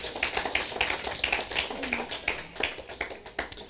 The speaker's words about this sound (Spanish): es un aplauso, hermanas. Es para ustedes.